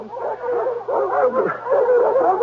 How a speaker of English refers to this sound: What's disturbing the dogs?